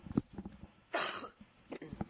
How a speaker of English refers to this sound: Excuse me, I had to take my headset off and cough there for a second.